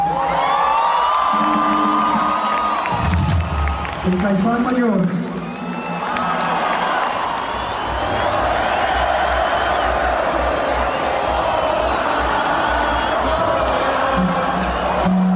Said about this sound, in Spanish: Por favor, raza, un aplauso muy, muy grande